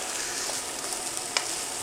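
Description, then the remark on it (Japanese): Store-bought frozen authentic stir-fried rice (chahan) is stir-fried in a Chinese wok instead of microwaved, sizzling steadily: a dense crackling hiss with a few sharper pops and one distinct clink of a utensil against the pan, with no one speaking. “関係ないよ中華鍋で炒めんだよこれはね中華鍋で炒めるのが一番うまいですね”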